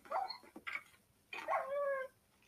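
A dog yips sharply a couple of times, then lets out a longer, wavering whimper; the cries are clear and fairly loud, with no talking.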